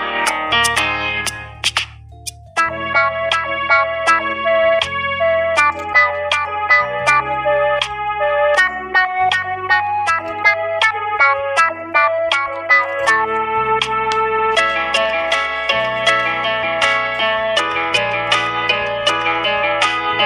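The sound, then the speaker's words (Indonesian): A cheerful, bouncy children's song plays as an instrumental intro, with a bright synth melody over steady bass notes, loud and continuous with no singing. “Tapi tunggu dulu, kita dengarkan dulu lagu berikut ini.”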